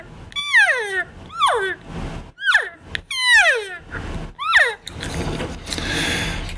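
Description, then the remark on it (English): Elk cow calls blown on a call: about five nasal, whiny mews, each sliding downward in pitch, given in quick succession, followed by a breathy rush of noise. “so I mean, that's just an example of some cow calls.”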